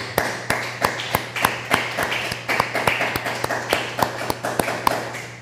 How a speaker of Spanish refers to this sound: Denle un aplauso al Eterno por todo lo que está escondido.